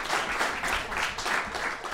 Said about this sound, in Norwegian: Stor applaus til dere.